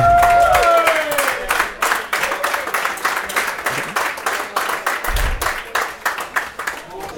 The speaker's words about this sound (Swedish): En varm applåd för vår kära legend